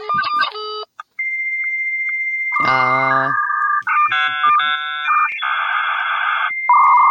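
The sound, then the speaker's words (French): A 56K dial-up modem connecting: a steady dial tone, quick dialing beeps, then warbling handshake tones and a harsh hissing screech, loud, with a brief voice exclaiming near the start. “Le modem 56K.”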